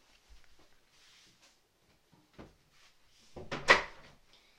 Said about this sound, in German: Und ja, ich mache noch schnell die Tür zu.